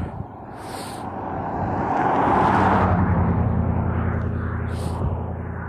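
A car drives past, its low rumble and tire noise swelling to a loud peak midway, then holding as a steady roar. No one speaks.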